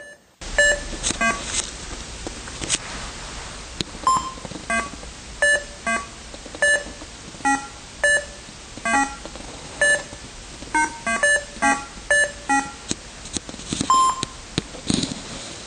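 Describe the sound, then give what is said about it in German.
Short electronic bleeps from an Atari Breakout game being played repeat at an uneven, bouncing rhythm, some notes higher and some lower, over a faint steady hiss, with no talking. “Und da wir ein Podcast sind, will ich euch den Sound von äh, Atari Breakout nicht vorenthalten.”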